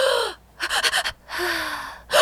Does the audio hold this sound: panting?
yes